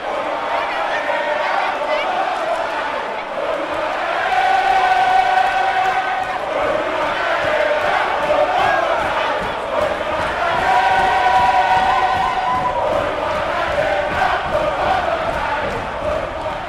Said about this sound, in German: Das Publikum tobt und scheint vergessen zu haben, dass der eigentliche Star des Abends noch kommen soll.